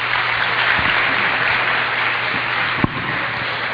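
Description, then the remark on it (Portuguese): Steady applause from an audience for director Carlos Costa, a dense, continuous wash of many hands clapping at an even, fairly loud level throughout, with no voices speaking over it. “Ao diretor Carlos Costa, também a nossa salva de palmas.”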